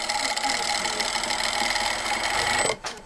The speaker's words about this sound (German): In der Nähstube nebenan werden beschädigte Kostüme auch restauriert oder umgearbeitet. Die Maschine rattert.